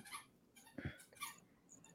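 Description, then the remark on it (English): A small puppy toy whimpers in several short, high-pitched whines and yips, fairly quiet, with brief pauses between them and no talking. “I hear a little puppy toy.”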